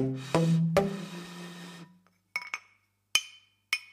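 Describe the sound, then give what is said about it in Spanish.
A glass bottle is tapped: two strikes set off a sustained, humming ring, followed by four short, bright clinks spaced irregularly, with no talking. “Qué lindo suena esta botella de vidrio.”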